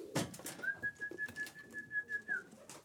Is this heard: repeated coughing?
no